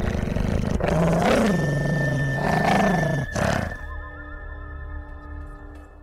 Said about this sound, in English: Because if you go out to Highland Lawn on a dark, cloudy night, you may hear a little dog barking and growling on the porch of the Heinl Mausoleum.